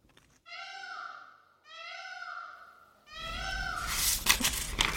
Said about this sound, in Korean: 한 번도 들어본 적이 없는 크고 거친 소리에 깜짝 놀랐는데 나중에 그것이 공작의 울음소리란 것을 알고서 한 번 더 놀랐다. 마치 무언가를 잘못 삼켜 목에 걸린 듯이 꾸억꾸억 세상이 떠나가라 소리를 토해내는 것이었다.